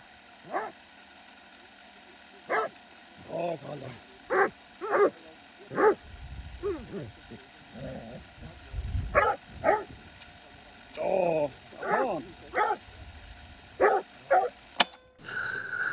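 An American Foxhound bays over and over during a predator hunt, in irregular bursts, mixing short throaty barks with longer wavering, drawn-out howls, loud and insistent, with no one talking.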